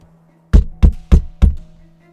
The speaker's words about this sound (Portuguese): Era meia-noite quando ouviu uma batida na porta. A batida ecoou bem alto pela cabana escura.